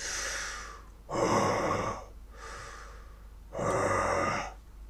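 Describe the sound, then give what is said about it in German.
Heavy, rasping breaths alternate in slow cycles, with loud snorting exhales around one and four seconds and quieter inhales between, prominent with no talking. “Und dann hört ihr plötzlich ein Schnaufen und ein Atmen.”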